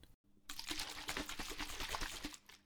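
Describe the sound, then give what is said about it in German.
A greens drink powder mixed with 200 millilitres of water is shaken in a shaker, liquid sloshing in quick rhythmic bursts for about two seconds, fairly loud, with no talking. “Aufreißen, reinschütten, 200 Milliliter Wasser dazu, schütteln,”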